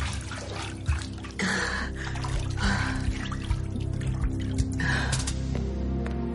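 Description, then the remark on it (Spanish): Water sloshes and streams off in a few bursts, then trickles and drips steadily as a woman, fully submerged face-up in a bathtub, sits up, over a low steady hum. “Mientras, en el interior de un cuarto de baño, Elena está completamente sumergida en la bañera, con el rostro hacia arriba cubierto por el agua.”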